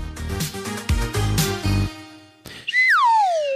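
A short, loud musical sting with plucked and struck notes, followed by a bright whistle that swoops downward in pitch and fades out at the end.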